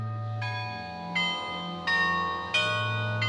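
Several bells of a carillon ring out in sequence, each strike bright with a long shimmering sustain, notes overlapping over a low humming drone of larger bells.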